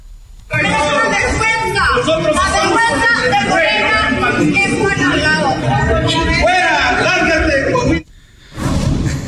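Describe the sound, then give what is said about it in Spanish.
A large crowd shouts and jeers at politician Mario Delgado, shouting "fuera, fuera, lárguese de Coahuila", in a loud, sustained roar of overlapping voices for several seconds, breaks off briefly, then the shouting starts up again. “Vamos a escuchar cómo le gritaron a Mario Delgado, no sabía dónde meter la cabeza.”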